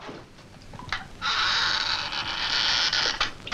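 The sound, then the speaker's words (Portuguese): A door creaks loudly as it swings shut, a sustained, scratchy groan lasting about two seconds after a few faint knocks, with no voices present. “Deixa de frescura e fecha essa porta.”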